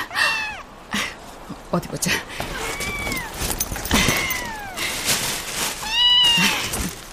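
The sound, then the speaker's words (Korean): A cat meows repeatedly, several drawn-out, rising-and-falling mews, while a person speaks briefly in between over faint background noise. “어, 어, 고양이 아니야?”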